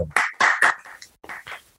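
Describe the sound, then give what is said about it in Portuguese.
A short burst of hand clapping in praise of a football player: three sharp, loud claps in quick succession, then a pause and a few softer claps, with no talking over them. “Ó, palmas. Palmas pro”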